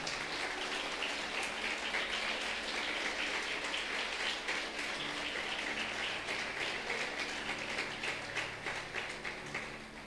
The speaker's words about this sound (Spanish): Dar un aplauso grande al Señor.